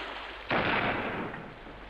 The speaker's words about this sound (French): Nous venions à peine de terminer notre travail lorsque du navire on tira un coup de canon. C'était sans aucun doute pour rappeler la chaloupe, car nous vîmes en même temps qu'on hissait un signal à son mât.